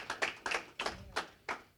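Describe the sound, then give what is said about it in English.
An audience claps together as a hand clap of praise to God during a church sermon, in a steady, even rhythm, about six sharp, bright claps in under two seconds, with no voices over them. “Give God a hand clap of praise, y'all.”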